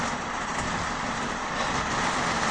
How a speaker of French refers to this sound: Bon, comme je vous le disais en début d'épisode, il pleut. Donc je sais pas si vous l'entendez, mais je suppose que ça commence à faire un beau petit bruit de fond.